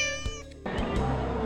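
A cat lets out a strained, harmonic-rich meow that breaks off abruptly into a harsh, raspy yowl lasting about a second. No one speaks.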